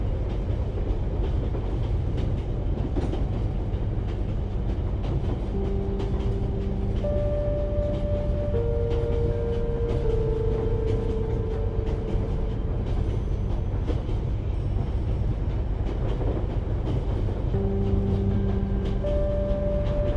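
A train on a long-distance journey rolls steadily along rails with a constant low rumble, joined by soft, sustained tonal hums that rise and fall in pitch. No voices are heard.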